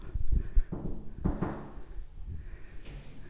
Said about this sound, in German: Klopfen vorher, ne? Also klopfen.